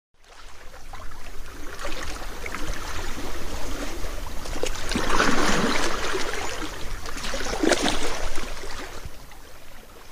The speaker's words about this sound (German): Wir sind sicher gelandet und befinden uns jetzt direkt an einem etwas abgelegenen Strand.